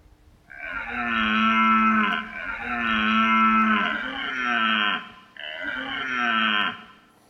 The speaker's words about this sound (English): All right, is that me before I've had my morning coffee? Is it a mountain lion or is it a stag elk? Well, it does kind of sound like me before my morning coffee, but actually, that is the sound of a stag elk.